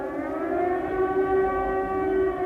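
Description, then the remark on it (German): An air raid siren wails in a steady sustained tone, its harmonics holding level and loud throughout, with a low rumbling background beneath and no voices; an air raid alarm in Saarbrücken, Germany, in 1944. “Kaum ein Tag und noch viel seltener eine Nacht vergehen für die Saarbrücker ohne dieses Geräusch.”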